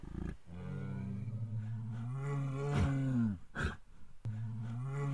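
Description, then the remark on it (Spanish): A deep, drawn-out bear roar rumbles loudly for about three seconds, then breaks off with a snort before a second low roar starts. No one speaks. “Un día, el oso llegó con la gran novedad.”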